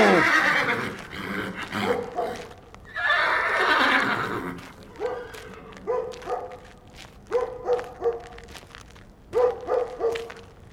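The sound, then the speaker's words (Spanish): Horses neigh loudly and repeatedly, long shrill whinnies at first, then a run of shorter snorting calls and stamping sounds, with an occasional dog-like bark mixed in. “¿Y qué tienen los caballos que no dejan de relinchar?”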